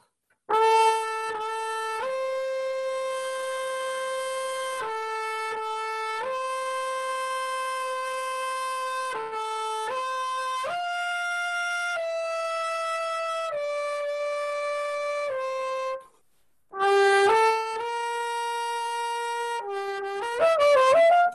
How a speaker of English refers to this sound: So instead of just playing Charlie and number two or something like that, I would play, um, like, let's say I would play, uh, you know, like Brahms' Lullaby. And I would do it in high keys with no vibrato, right? So I'd be like,